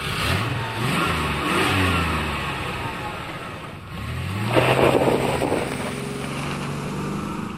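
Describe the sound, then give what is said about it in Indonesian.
A car engine cranks to life on the starter and revs up and down in strong bursts, the pitch sweeping up and falling back several times, with no talking. “Tutup pintu Mas Bro. Starter.”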